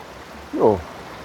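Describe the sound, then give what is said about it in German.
A steady, even rush of flowing mountain water from a stream swollen with snowmelt at the entrance of the Steinwandklamm gorge fills the background, with a brief voiced sound cutting in near the middle. “Man hört auch schon das Wasser fest rauschen, das ist natürlich jetzt Schneeschmelze.”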